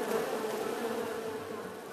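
A dense, steady buzzing of a swarm of bees, many wings droning together without pause at an even level, with no voices.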